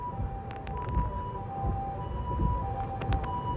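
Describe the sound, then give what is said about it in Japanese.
An ambulance siren sounds loud, a steady high wailing tone with brief breaks, layered over a rumbling engine and road noise, as the ambulance drives the wrong way up a one-way street. No one speaks. “あの、救急車がびっくりした。”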